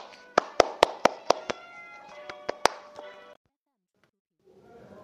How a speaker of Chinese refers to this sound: 解折这段小故事，掌声有请。